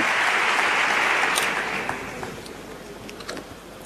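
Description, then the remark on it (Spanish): A crowd gives the eleventh ovation to the pregonero Enrique Casellas during the Holy Week (Semana Santa) proclamation in Seville, a dense, sustained wash of clapping that stays steady, then thins out and fades over the last couple of seconds, with a few scattered claps trailing at the end. “El cautivo de Santa Genoveva, el cautivo de San Pablo, que aparecen en el pregón de Enrique Casellas, decimoprimera ovación para el pregonero.”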